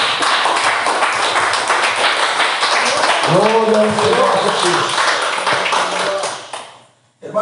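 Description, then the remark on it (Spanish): Sustained audience applause for Jesus, a dense, steady clatter of many hands that carries on for several seconds while a man's voice calls out over it, then fades off at the end. “Fuerte para Jesús este aplauso.”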